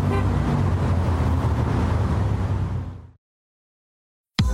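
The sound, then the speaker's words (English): Busy street traffic heard during a city bus tour roars with a sustained car horn honking over the din for about three seconds, then cuts abruptly to silence before a brief burst of noise returns. “Now, if you'll excuse me, I'm actually on a bus tour right now.”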